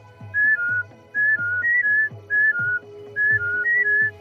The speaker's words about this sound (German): Und dann hörst du entweder von ihm oder an anderer Stelle singt er dir oder er pfeift dir was vor und furzt dir was vor und du musst es dann einfach imitieren. Es ist so wie so ein Sensorspielchen so ein bisschen.